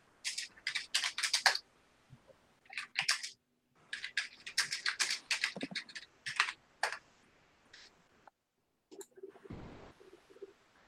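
Rapid bursts of crisp computer keyboard typing as a message is typed to another person, with clustered keystrokes separated by short pauses, ending with a couple of heavier clicks and a soft thump.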